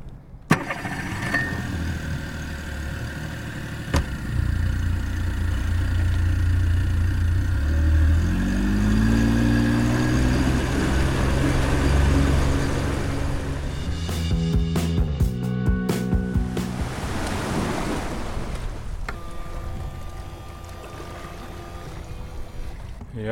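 A 40 hp outboard boat motor starts up and revs, its engine note rising and shifting in pitch as it accelerates, loud, then settles into a steady running drone with water noise.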